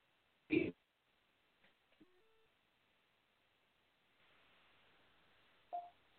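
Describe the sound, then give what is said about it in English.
A muffled, narrow-band phone line cuts in and out, with a sudden loud burst, brief warbling digital tones, stretches of near silence and a patch of hiss before another sharp crackle. “I wanted to let you know that your your phone is breaking up a little, so you might just want to move to a, maybe a different room or a different area so we get better reception.”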